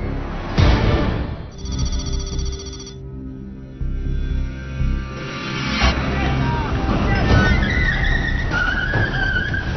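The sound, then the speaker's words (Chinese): A drug suspect's car at a highway junction spins its tires in place as the driver keeps accelerating, trying to flee; the engine revs hard in a loud, continuous roar with rising squeals near the end and indistinct voices mixed underneath. “好，我就听到起就是那个嫌疑车辆呃车轮胎空转的声音，他一直在加油，一直在加油往前面，往前面试图要试图要逃跑。”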